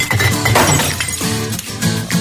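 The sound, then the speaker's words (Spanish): Glass bottles clatter and shatter into a recycling bin, a loud, dense crash of breaking glass with bright clinks ringing through for a couple of seconds, with no voices. “Reciclar las botellas de vidrio”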